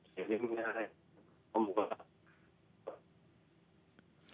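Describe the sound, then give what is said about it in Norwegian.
A voice speaking Norwegian comes through a thin, tinny phone line in choppy bursts, broken by stretches of near-silence, a faint low hum and a few soft clicks. The caller is being interviewed about a memorial site at Sørbråten. “det er litt dårlig telefonlinje til deg,”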